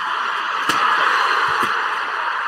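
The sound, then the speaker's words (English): A steel chair cracks against someone with one sharp, loud smack, then a softer second thud a second later, both over a constant, hissing roar of crowd noise. “Here's the swing again. It's a hell of a crack.”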